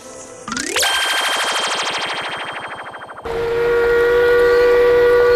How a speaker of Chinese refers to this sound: 火车快开了，我得上车了，你先回去吧。